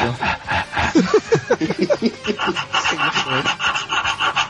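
Fairly loud rasping scrapes repeat in a quick, steady rhythm, like a file drawn back and forth, with some breathy, voiced noises mixed in during the first half.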